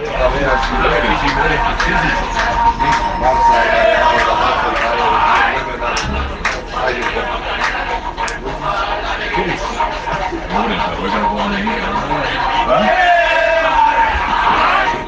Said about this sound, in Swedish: istället för att sjunga på tåget, så kör de … alltså och, och sen … och dansa …